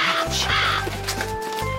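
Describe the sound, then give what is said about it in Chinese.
Several harsh, raspy crow caws ring out in quick succession, loud and rough, over a steady low humming tone that runs beneath them. “乌鸦十分后悔，不该讨厌自己的样子。”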